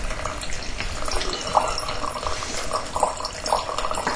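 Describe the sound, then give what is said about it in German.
Wine trickles steadily out of a pouring decanter, a continuous splashing flow with a few brighter gurgling bursts along the way; no one speaks. “über längere Zeit bei euch plätschern sollte, Horst hat seinen Ausgießdekanter”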